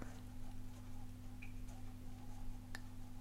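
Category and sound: household object, wall clock ticking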